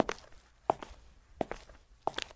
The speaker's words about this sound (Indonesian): Suara langkah kaki orang dewasa memakai sepatu bersol tebal.